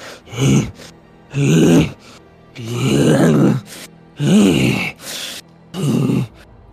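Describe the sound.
A voice imitates heavy, snorting breaths heard behind a group as they walk on: about six loud grunting huffs in an uneven rhythm, each separated by a short pause, with no other speech.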